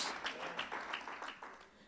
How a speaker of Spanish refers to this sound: Así que dele un fuerte aplauso a la palabra de Dios porque va a ser la palabra que nos va a convencer a todos, a todos.